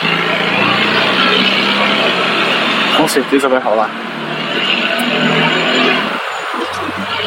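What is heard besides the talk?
truck passing by outside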